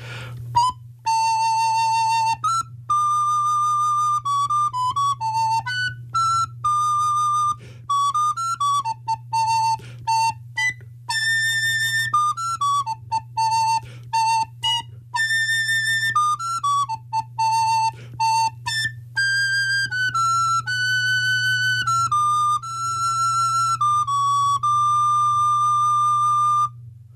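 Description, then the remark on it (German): Someone whistles a few bars of the theme from the Terence Hill film My Name Is Nobody, a clear, bright melody with quick notes and short pauses, carried over a steady low hum throughout. No one speaks. “Ich probiere mal einfach ein paar Takte.”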